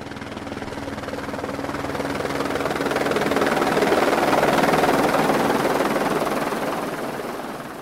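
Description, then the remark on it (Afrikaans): A helicopter flies past, its steady rotor thrum and engine roar swelling louder toward the middle and then easing slightly as it moves on; no voices are heard. “ek weet nie of ek iemand my op 'n helikopter sal laat vat nie.”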